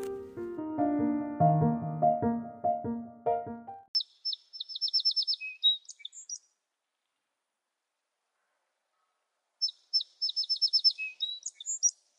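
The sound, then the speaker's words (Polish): A short burst of tinkly music gives way to bright, rapid sparrow chirping in two quick twittering bursts separated by a pause of silence, clear with no talking. “Dzisiaj sowy deser to misa wielka, więc zaprosiła na ucztę wróbelka.”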